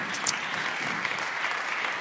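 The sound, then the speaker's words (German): Steady audience applause for two guests invited onto the stage, a dense, even wash of many hands clapping at once, holding a constant level throughout with no voices on top. “Und ihr dürft sehr gerne einen Applaus geben für die beiden.”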